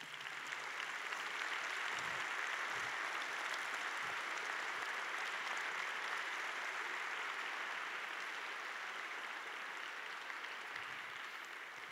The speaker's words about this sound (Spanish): Jesús dejó las 99 ovejas por ir por ti y por mí. Dale un fuerte aplauso a Jesús.